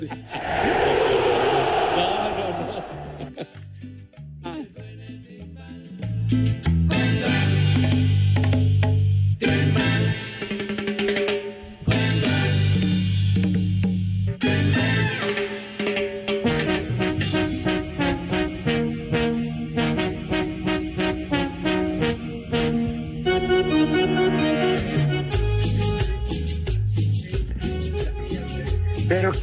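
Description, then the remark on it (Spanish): A loud, upbeat pop song plays straight through for about half a minute, with a steady thumping beat, prominent bass and a sung vocal line, and no talking over it. “canción tan más macuarra, Dios mío.”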